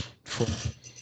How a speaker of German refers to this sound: Was ist bei dir da los? Das war mein Stuhl. Der, der, knirscht, aber ganz schön.